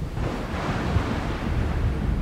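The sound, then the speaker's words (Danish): Roaring sea surf off the island of Samsø, Denmark, between Jutland and Zealand, fills the scene with a steady, dense wash of breaking waves, buffeted by gusty wind noise on the microphone, with no pauses or voices. “Du er i middelalderen for mere end 600 år siden, og du står på øen Samsø, der ligger i havet lige mellem Jylland og Sjælland, og der står du og spejder ud over det brusende hav.”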